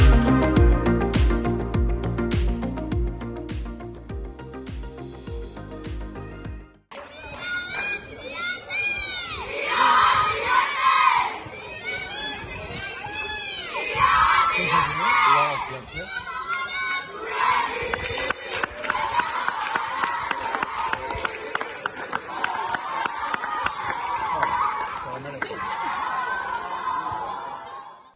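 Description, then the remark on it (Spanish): A brief musical jingle gives way to the Antiguoko senior women's team loudly cheering, shouting and laughing together as they celebrate promotion to the Honor division, sustained, with overlapping high-pitched voices. “Así suena la celebración de todo un ascenso a honor de nuestro senior femenino, de nuestras chicas del Antiguoco,”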